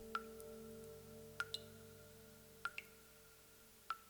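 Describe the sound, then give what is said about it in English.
Water drips steadily in a dark cave, four clear plinks spaced about a second apart, each with a ringing, resonant tone over a low, quiet background hum. “steady blink of water in the darkness like the heartbeat of the earth.”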